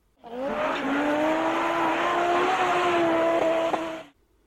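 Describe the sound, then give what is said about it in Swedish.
An Audi Group B rally car engine, a 600-horsepower four-wheel-drive car, roars at high revs for about four seconds, its raspy pitch climbing slowly and steadily, with a couple of sharp pops near the end before it cuts off. “Från diskret gubbil till eldspottande Grupp E-monster med 600 hästar och fyrhjulsdrift.”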